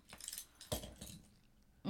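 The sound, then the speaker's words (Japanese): A small metal spare house key jingles and clinks as it is handled, with a few bright jangling bursts and soft rattling between them, no voices. “これ処分しちゃってあいつの家の合鍵返し忘れてて”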